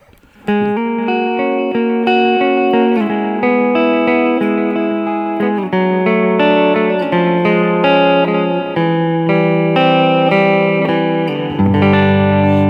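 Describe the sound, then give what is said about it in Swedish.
Guitar chords strummed loosely and dynamically, ringing with a light reverb tail that softens each change. The instrument plays alone, steady and fairly loud, with no voices. “För när du spelar så här lite ganska dynamiskt och löst så blir det då blir det den här lilla reverb-känslan.”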